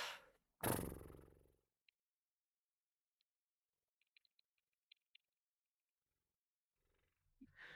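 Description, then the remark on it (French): A person blows a loud, buzzing lip trill, letting the lips vibrate like a horse blowing to relax the cheeks, in one burst lasting about a second, followed by quiet with a few faint clicks. “Euh, vous faites comme euh, un cheval qui soufflerait, vous lâchez vos, vous laissez vos lèvres fredonner entre elles.”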